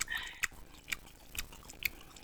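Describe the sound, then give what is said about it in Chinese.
A dog chewing food right at the microphone: four crisp, crunchy bites land about every half second, with soft wet mouth sounds between them and no voices. “没有真的，他们他们都会给狗狗宠物啊吃，然后麦克风靠靠近，然后就会听到他们那边”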